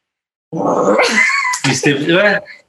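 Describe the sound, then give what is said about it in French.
A person imitates a cat, letting out two drawn-out, nasal meows in close succession, loud, with a short break between them. “Non, c'est qu'elle miaulait. Tu sais, faisait des bruits bizarres. Genre miaou, miaou.”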